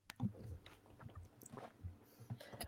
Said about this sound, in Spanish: más allá de escuchar a gente tragar, no se oye nada